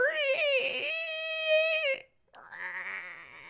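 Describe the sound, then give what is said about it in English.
A person lets out an imitation scream: a loud, high-pitched, wavering wail held for about two seconds, then a brief pause and a shorter, raspier cry. “Scream.”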